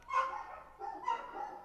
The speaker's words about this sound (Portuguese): E pronto, agora os cães decidiram ladrar todos. Por causa dos gatos.